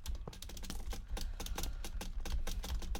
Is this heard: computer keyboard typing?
yes